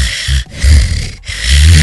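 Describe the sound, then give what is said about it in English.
A voice mimics a sleeping baby's breathing as heard while quietly checking on him in the morning: three slow, raspy, snore-like breaths with short pauses between them, fairly loud. “I walked in, I was listening real quietly, I heard”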